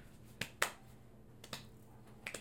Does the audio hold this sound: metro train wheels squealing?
no